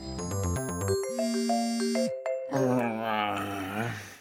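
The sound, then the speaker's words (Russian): A quick run of bright electronic notification chimes, several stepped notes ending on a held tone, clear. After a brief pause, a voice comes in. “И вдруг на все телефоны уведомления пришли.”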